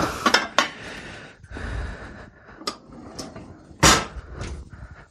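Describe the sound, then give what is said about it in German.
A casserole dish is pulled from a cupboard for making crème brûlée: a few sharp clinks and knocks of ceramic and wood, scattered unevenly, with one louder clatter near the end and no voices. “Nee, nehmen wir doch lieber eine Auflaufform. So, komm her.”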